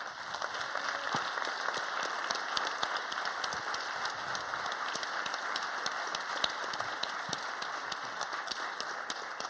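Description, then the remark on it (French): Sustained audience applause welcoming a guest, a dense steady crackle of many hands clapping at an even level for several seconds, with no talking over it. “Merci d'accueillir Camille Gévaudan.”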